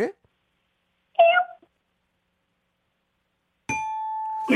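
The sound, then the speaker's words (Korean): A person briefly imitates a kitten's meow with one short, high mewing cry. After a pause, a loud sustained bell-like ding rings out, with a voice right at the end. “아기 고양이 한번 들어볼게요.”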